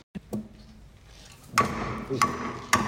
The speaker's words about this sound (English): This is a machine that is used for bookbinding as well as lino cut and wood cut. Uh, the big long arm that you're referring to is called a chill. And uh, so when you when you push it forward, uh, you hear what it's doing here.